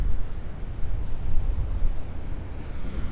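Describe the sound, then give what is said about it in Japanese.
Rough sea waves at the coast roll in a continuous low, rushing roar with a gusty, wind-like hiss, swelling and easing slightly but never stopping. No voices are heard. “今日は海の波が結構荒い感じです”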